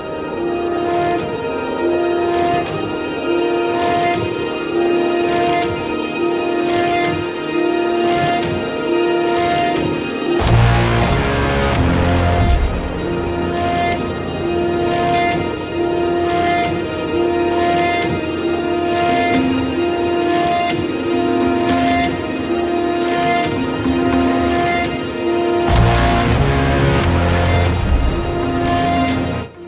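Orchestral film score music with sustained tonal layers and a pulsing rhythm; heavy low percussion and bass hits enter around ten seconds and swell again near the end, with no speech.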